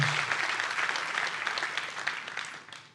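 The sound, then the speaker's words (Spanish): An audience claps together in a steady, dense wash of applause for about three seconds, holding at a fairly even level before tapering off slightly at the end, with no voices standing out. “Den un aplauso.”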